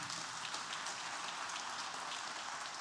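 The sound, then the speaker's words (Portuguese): A crowd applauds, a dense, steady wash of many hands clapping that holds at an even level for about three seconds, with no voices over it. “Você podia dar um aplauso porque você está aqui.”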